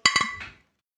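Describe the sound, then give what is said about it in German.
Two bright glass clinks in quick succession, ringing, followed by a softer scrape and a short fading resonance, like glasses touched together in a toast. “Ja, jetzt, Jungs, anstoßen.”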